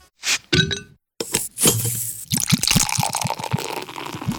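Glasses clink together in a toast, a few bright ringing chimes, followed by a busier stretch of clattering glass and rhythmic taps.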